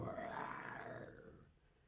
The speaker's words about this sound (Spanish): El rugido del león, el rey de la selva.